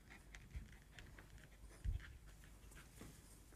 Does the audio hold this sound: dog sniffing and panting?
yes